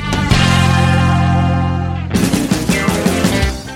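The opening of a rock album track: a loud, distorted electric chord rings out and sustains for a couple of seconds, then drums and the full band crash in with a driving rock rhythm. No voices.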